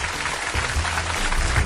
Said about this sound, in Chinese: 走一段掌声。